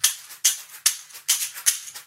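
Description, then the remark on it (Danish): A caxixi, a Brazilian rattle, shaken in a steady rhythm, each crisp, hissing shake arriving about every 0.4 seconds with a sharp attack and quick decay, fairly loud with no talking. “Så lige så kan jeg spille nogle lidt mere rytme.”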